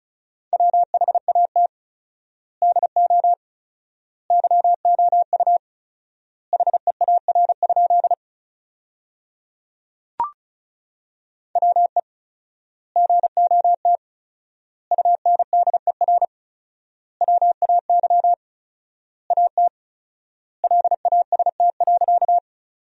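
Rapid Morse code beeps at 35 words per minute on a single steady mid-high pitch, sending sentences built from the top 300 words, keyed in quick bursts grouped into words with fourfold word spacing and clear pauses between them, plus one sharp click partway through. No voices.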